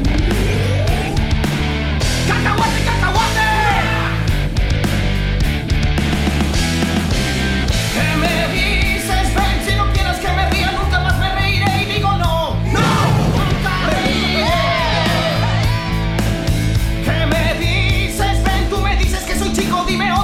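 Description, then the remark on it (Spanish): A goofy, cartoonish song plays loudly and continuously on a morning radio program, with energetic shouted vocals riding over a bouncy full-band backing. “Bueno, ahora es momento de que Leo nos comparta una canción para escuchar, para que los radioescuchas se emocionen en esta mañana.”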